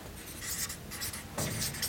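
A pen or marker scratches across a large sheet of paper in quick, uneven strokes, moderately quiet, with brief pauses between bursts, as a woman notes what was missing in an example conflict at an institution for young women near Bern, Switzerland, in a bright room with a large window.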